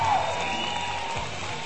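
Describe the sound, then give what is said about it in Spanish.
A burst of applause and crowd noise, dense and steady for a couple of seconds, with faint cheering mixed into the wash of clapping. “Aplausos para él.”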